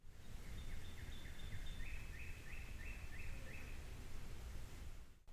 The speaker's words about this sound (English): The sun doesn't really get down here, and so I'm shivering a little bit, but uh, uh, the birds have moved into the sunny parts of the branches and are just singing away and loving it. Um, I hope you guys can hear them a little bit.